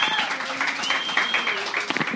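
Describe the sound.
An audience applauds with steady, dense clapping that holds at an even loudness throughout, with a few faint sustained tones and murmuring voices mixed underneath.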